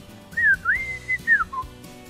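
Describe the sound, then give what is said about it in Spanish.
A person whistles a short signal call of several rising and sliding tones, clear, ending on a brief lower note, with faint background noise. “Me acuerdo el silbido”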